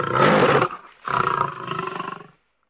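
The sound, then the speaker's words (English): A lion roars twice, a loud, rumbling first bellow followed after a brief pause by a longer, grinding roar that trails off, with no other sounds around it. “At midday, the yellow lions go to the water and drink. They have big green eyes and a terrible roar.”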